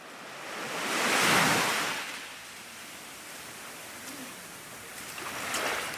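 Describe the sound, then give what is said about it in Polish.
Caribbean Sea waves wash onto the shore on the island of St. Vincent, a broad hissing surge swelling around the first seconds and then easing into a steady rush, with another softer wave building near the end. No voices. “Trzeba zostawić na chwilę Karaibskie Morze, by wspiąć się do domu, w którym mieszka Franki.”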